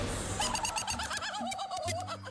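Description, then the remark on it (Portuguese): A voice imitates the loud laugh of a woman at a neighbouring table during dinner: a continuous, high, warbling cry that wavers up and down in pitch for about two seconds, with no other talk around it. “Quando de repente uma das pessoas da mesa do lado ri-se assim, eu vou tentar.”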